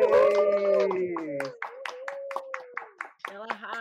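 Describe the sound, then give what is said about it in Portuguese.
Applause for women professionals of the Alagoan audiovisual scene on a programme breaks out: sharp hand claps landing in an uneven patter, while drawn-out cheering voices and whoops ring over them at first and then thin out. “a gente já aproveita essa salva de palmas calorosa para pedir que você nos fale os seus arrobas e recados finais do nosso programa.”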